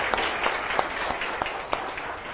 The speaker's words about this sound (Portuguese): Ok. Olha, muito obrigado, uma salva de palmas para todos os três, né? Muito bom.